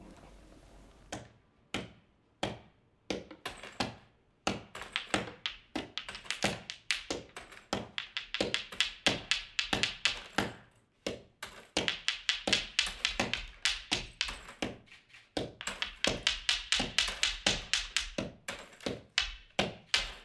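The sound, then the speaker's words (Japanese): Stones clack together in a long series of sharp taps, sometimes spaced, sometimes in quick clusters, fairly loud with no voices, as stones are thrown and struck. “石だけじゃない音がしたというか、うんうん、これ多分お金だったかな,、なんかそこに石を投げたり叩いたりしてて、うんなんかそうするとやっぱりちょっとイメージが広がっていくというか”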